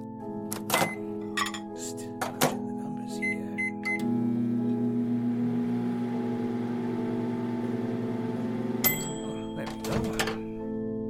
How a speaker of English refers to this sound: It should give me enough time to microwave this burrito.